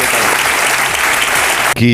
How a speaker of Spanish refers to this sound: quitándose la careta Pedro Sánchez, aplaudían en ese momento de forma encendida a los miembros del Comité Federal